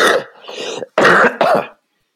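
A loud bout of lingering coughing: a rough, throaty hack followed by two sharp, forceful coughs in quick succession, with no talking around them.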